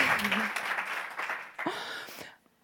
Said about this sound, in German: Wow, herzlichen Applaus für dich. Richtig cool.